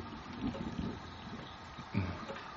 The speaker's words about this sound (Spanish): Sí, no hay duda. Se escucha el agua correr.